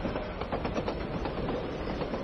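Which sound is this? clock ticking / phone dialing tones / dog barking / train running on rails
train running on rails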